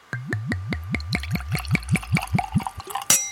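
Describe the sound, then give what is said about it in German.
Wine glugs out of a freshly uncorked bottle into a glass in a quick, steady run of about a dozen gurgles that speed up and blur together, ending with a bright clink of the bottle against the glass. “So, und jetzt kommt das Plätschergeräusch.”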